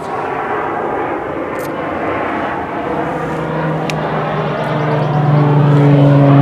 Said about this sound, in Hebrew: מה זה המטוסים האלה, אבל? יש פה... לאן הם טסים? זה לא מטוסים, זה לא נוסעים. זה יש פה, זה... זה תעופה צבאית. אה. F-16 בדרך כלל.